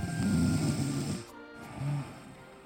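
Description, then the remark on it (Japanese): Two low, rumbling snores from a sleeping boy, a long drawn-out one followed by a shorter one after a brief pause, fairly loud with no talking. “でも寝太郎はただいびきをかくだけで返事をしません”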